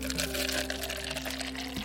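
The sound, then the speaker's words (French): Coffee pours steadily into a cup for about two seconds, a continuous splashing hiss with a faint rising tone as it fills, ending with a small clink. “Alors, je vous en sers un”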